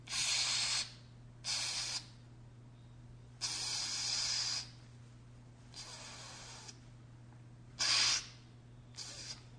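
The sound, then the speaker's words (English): Audible breaths drawn in and pushed out through the mouth to demonstrate a breathing exercise, six airy bursts in a slow, uneven rhythm, fairly soft over a faint steady hum, with no talking. “and instead of breathing through my nose, I'm going to breathe through my mouth just so you can hear what I'm doing.”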